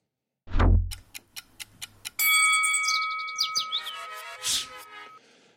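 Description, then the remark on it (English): A segment sound effect: a deep thump, then a quick run of clock ticks, followed by a bright ringing chime that sustains and fades, with a short whoosh near the end. No one speaks. “The clock starts when the tweets go up.”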